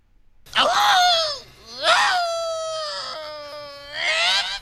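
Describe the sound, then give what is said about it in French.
A voice actor's recorded pained cry for a video game: drawn-out and strained, rising and wavering in three loud anguished bursts over about four seconds, clear with no other sounds. “jeux vidéo, parce qu'il faut qu'ils fassent plein de cris dans les jeux.”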